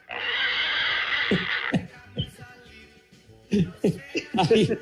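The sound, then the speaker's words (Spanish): A person imitates a pig with a harsh, noisy snort, then a series of short grunting oinks, fairly loud, with a squealing burst near the end. “Haz como puerco. Haz como puerco.”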